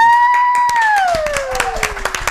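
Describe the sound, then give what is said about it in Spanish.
An audience applauds with a steady patter of claps, while a loud whistle-like tone slides slowly downward in pitch over the clapping. “Un aplauso para”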